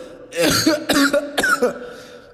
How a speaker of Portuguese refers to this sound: Isso aqui é só uma tosse.